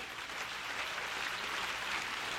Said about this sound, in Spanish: Si ese es el aplauso,